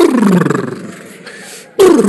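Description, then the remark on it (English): A voice imitates thunder as heard in a drama scene just before God speaks, with a loud, low, growling rumble that slowly fades, breaks off for a moment, then bursts out again with a second gravelly roar. “And as the drama was going on, it got to a scene where God was going to talk. And there was thunder.”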